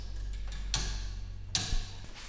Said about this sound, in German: Dass das nicht regelmäßig tickt, das macht nichts, das ist nicht ganz gleichmäßig ist. Nein, das macht nichts.